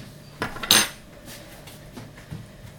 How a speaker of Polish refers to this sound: I zamieszam sobie teraz nasz barszcz.